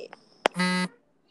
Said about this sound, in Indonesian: Suara notif, notif. Oh, notif di ini.